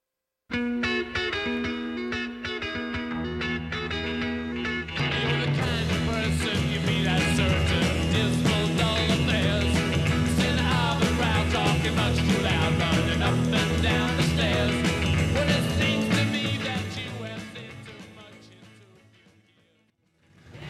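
A 1960s rock song, a 1966 year-end chart hit, plays at full volume, with driving guitars, bass and drums; the band kicks in harder after a few seconds, then the track fades out near the end.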